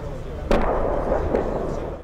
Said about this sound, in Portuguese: Aqui, tanques de guerra atiram sem parar